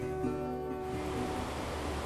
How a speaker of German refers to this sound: Das Grollen und Getöse der unzählbar vielen Wasserfälle ist allgegenwärtig.